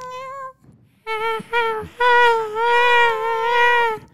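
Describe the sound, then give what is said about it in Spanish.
A person imitates a cat's meow with a short mew, then two quick wavering cries and one long, drawn-out, quavering meow, loud, with no other talking. “Porque es un gato pensativo.”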